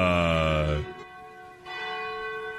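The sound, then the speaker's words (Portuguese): The large bell of the Cathedral of Our Lady of Aparecida rings loudly, its rich harmonic tone decaying after the first strike, then a second stroke sounds about a second later, the resonant hum lingering with no voices present. “Momento que toca o sino da Catedral de Nossa Senhora de Aparecida.”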